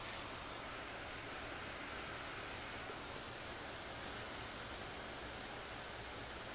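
Heavy rain pours in a dense, steady hiss that fills the whole clip without pause or change, a continuous wash of noise with no voices over it.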